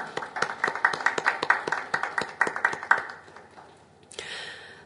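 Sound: audience applause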